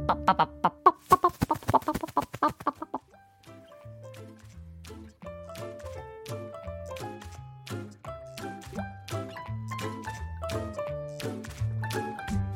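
A rooster clucks in a quick, jerky burst of loud, sharp clucks lasting a few seconds, then a bouncy instrumental tune with a plucked bass line takes over.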